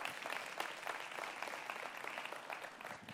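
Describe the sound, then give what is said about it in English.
Steady applause from an audience, a dense wash of many hands clapping at once, sustained at an even level without pause. “Thanks for applauding.”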